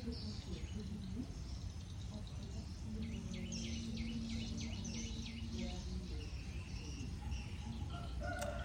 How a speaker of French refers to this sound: En attendant, je vous laisse entendre le chant du coq et des oiseaux. Moi, j'adore ça.